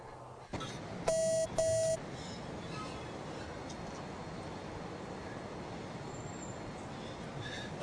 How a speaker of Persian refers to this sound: اون تلفنه